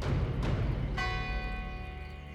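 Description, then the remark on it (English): A church tower bell strikes the hour with one loud stroke, its metallic tone ringing on and slowly fading over a low, rumbling background, with a softer knock just before it. “Then, as the bell in the church tower struck four, the shadow quivered slightly, becoming so thin and angular that it almost ceased to be a man at all.”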